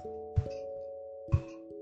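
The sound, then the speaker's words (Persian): A telephone rings twice, each ring opening with a bright struck onset and then ringing on as a steady chiming tone. The two rings fall about a second apart at moderate volume, with no voices. “زنگ تلفن صدا در آید اندی در را بندد به سمت تلفن رود و جواب دهد”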